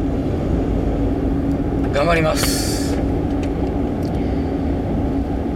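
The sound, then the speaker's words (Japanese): Heavy rain pours steadily and grows heavier, a dense, unbroken roar that fills the whole recording, with a short spoken phrase from a voice partway through. “いやーなんか雨がねだんだんひどくなってきて私実はあの車を借りにバイクで来てるんですが帰りはねもうずぶ濡れになりそうなちょっと予感がしておりますね”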